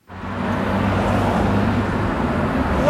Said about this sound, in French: il m'a proposé de m'attendre devant le bâtiment, au bord de la rue de Béliard, qui, avec la rue de la Loi, est celle qui draine sans doute le plus de trafic dans le quartier européen